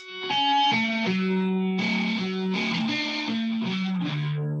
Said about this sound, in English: Yep, so just this little guitar riff here I hummed into my phone the other day and I was like, all right, you got to remember this shit. And it's literally just like five little lines.